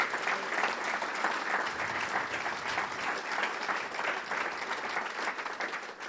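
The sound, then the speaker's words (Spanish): A church audience applauds steadily for several seconds for Christ as new members are received into the church, a dense, continuous wash of clapping from many hands that holds at an even, moderately loud level throughout. “¿Y cuántos les dan un aplauso fuerte otra vez a Cristo y lo recibimos como miembros de la iglesia?”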